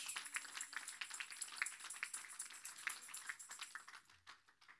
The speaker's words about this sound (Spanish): Un aplauso a la palabra de Dios.